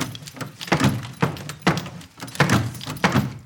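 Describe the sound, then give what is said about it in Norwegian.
A locked broom-closet door is rattled hard, again and again, by someone trying to open it while another holds it shut from inside: about seven sharp metallic jolts in a steady, insistent rhythm, with no voices. “Hugo prøver så godt han kan med å få opp døra, men så ser han vaskemannen sin nøkkel.”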